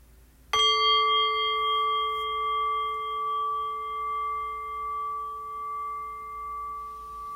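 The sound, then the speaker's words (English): A single meditation bell is struck once, giving a clear, bright tone with layered overtones that rings on steadily and slowly fades, wavering gently as it sustains, with no voices. “Ringing the bell.”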